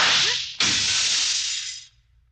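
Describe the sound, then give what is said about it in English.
A single sharp gunshot crack cuts through a steady hiss of line noise, sounding thin as if over a telephone, with the static fading out shortly after. “Bullets now delivered by phone. Thanks for the slug.”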